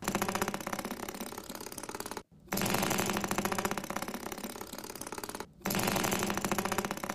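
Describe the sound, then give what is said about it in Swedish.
A spring doorstop fixed at the bottom of a door being struck, giving a loud, buzzing metallic rattle that holds steady in three long bursts, each cut off by a brief pause, with no voices. “Det här på engelska så här står hitting a doorstopper.”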